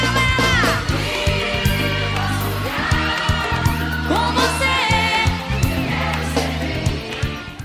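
A forró band song plays loud and full, with a steady pulsing bass line underneath and sliding melodic lead lines, likely voice and keyboard or accordion, carrying on continuously throughout.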